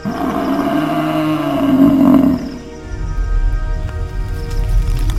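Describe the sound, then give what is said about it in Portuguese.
A loud warning growl from a creature soaked and covered in fungus as it raises its neck, deep and harmonic with a rising, roaring tone for about two seconds, then fading into a low rumbling snarl that continues beneath. No one speaks. “Então, o animal ergueu o pescoço e gruiu um som de aviso.”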